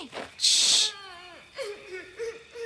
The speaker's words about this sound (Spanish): Eso, ¿lo oyes? Oh, sí. Parece alguien llorando. Y parece que viene de aquellas zarzas de allí.